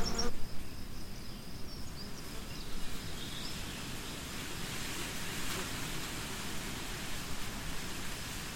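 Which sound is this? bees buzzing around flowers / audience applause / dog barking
bees buzzing around flowers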